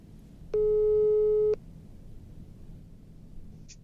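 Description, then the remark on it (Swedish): An outgoing phone call's ringing tone sounds once as a single steady electronic tone, about a second long and fairly loud, then gives way to quiet background hum with no one talking. “Så nu ringer vi upp honom.”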